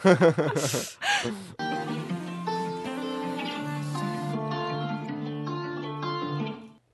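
A pop song's closing moments: a short, bright sung vocal phrase, then layered sustained synth chords with a gentle melody that hold steady before cutting off at the end.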